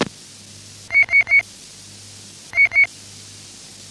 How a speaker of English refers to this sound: Apparently that's probably a local interference here.